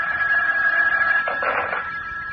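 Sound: telephone ringing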